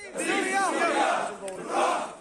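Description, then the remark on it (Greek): A crowd of heavily armed Syrian fighters, holding Russian flags and banners showing Assad and Putin, shout war slogans together with fists and rifle barrels raised upward: loud overlapping chanting voices in two rising swells with a brief sharp click between them. “Βαριά οπλισμένοι Σύριοι μαχητέ με ρωσικέ σημαίε στα χέρια και με πανό στα οποία απεικονίζονται ο Άσαντ και ο Πούτιν φωνάζουν πολεμικά συνθήματα με τι γροθιέ και τι κάνε των πολεμικών όπλων στραμμένε προ τα επάνω.”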